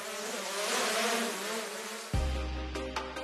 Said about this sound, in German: Ihr Name? Silencio, Version Gamma. Eine Drohne, die wie ein Helikopter senkrecht startet und landet und wie ein Flugzeug vorwärts fliegt.